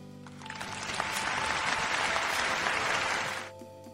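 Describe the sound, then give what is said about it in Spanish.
Applause from the neighbourhood: a dense, steady patter of many hands clapping swells in quickly, holds evenly for about three seconds, then cuts off, leaving a faint low hum. “En mi cuadra se escuchan aplausos.”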